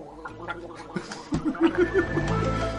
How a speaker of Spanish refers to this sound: Toma agua y haz una gárgara ahí para, sacar este.